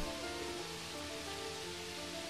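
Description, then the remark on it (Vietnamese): Steady, dense heavy rain pours on a tin roof in Saigon, Vietnam, drumming as a continuous full hiss with faint ringing tones, unbroken, with no voices. “Những cơn mưa Sài Gòn chợt đến chợt đi Không hề báo trước Có khi tôi đang ngồi thì nghe tiếng mưa dội trên mái tôn xối xả”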